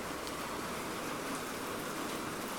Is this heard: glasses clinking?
no